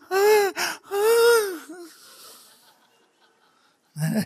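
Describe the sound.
A voice imitates delighted groaning: two loud, drawn-out moaning sighs with rising and falling pitch, trailing off into breathy gasps, followed by a brief vocal sound at the end.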